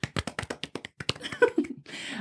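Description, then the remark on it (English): A quick burst of clapping, about nine sharp, evenly spaced claps from what sounds like one or two people, fading into a brief voice and a soft rush of noise. “So today's special episode, because it's the sixth episode of the Hanxious podcast, which let's give a round of applause.”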